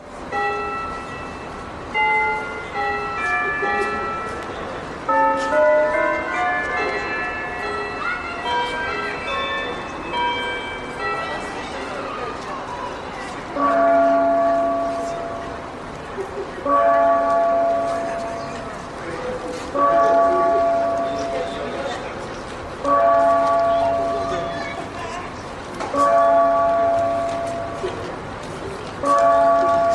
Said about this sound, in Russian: Замечу, что новое поколение орловчан даже не знает, что эти часы когда-то не только показывали время, но еще и звучали, как сказано на памятной доске, которая висит у входа в здание Орловского вокзала.